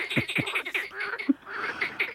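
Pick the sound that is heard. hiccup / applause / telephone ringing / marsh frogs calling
marsh frogs calling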